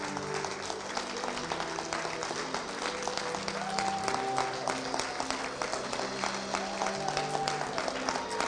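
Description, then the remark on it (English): An audience claps steadily in celebration, a dense, continuous patter of many hands at even loudness, with a soft sustained tone and faint murmuring underneath. “And so I want us to get on our feet and I want us just to clap in celebration. I just want us to clap. Start clapping.”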